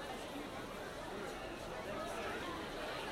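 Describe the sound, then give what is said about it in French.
A crowd gathered on the steps leading to a building's entrance: a dense, steady murmur of many voices talking at once, with no single speaker standing out, holding at an even, moderate level throughout. “Les marches qui mènent à l'entrée sont noires de monde.”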